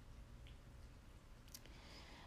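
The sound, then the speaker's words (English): Faint wet, squishy chewing noises from a dog named Miss Serenity eating her rawhide, over a low background rumble, with a few short sharp snorts or crunches, the clearest one about two-thirds of the way through. No one speaks. “That's Miss Serenity snorting and eating her rawhide.”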